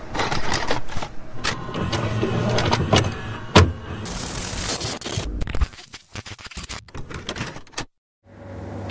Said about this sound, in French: de éjecter cette euh, cassette et puis je vais l'acheter contre le mur. Avec euh, pertes et fracas, comme on dit. Voilà, donc je te laisse écouter ce doux bruit de VHS pété.